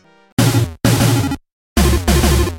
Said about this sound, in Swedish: Då tror jag vi tar och slänger den här äh, dassiga megadrive-musiken åt fanders och så lyssnar vi på något roligare istället.